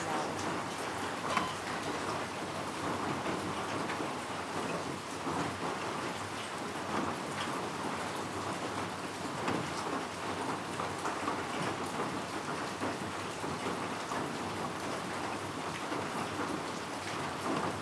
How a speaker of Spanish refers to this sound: Hoy, en medio de la tristeza y frustración, abrí una ventana que no tiene vista directa a nada verde. Pero como llovía, apagué la música y nos concentramos en el sonido del agua.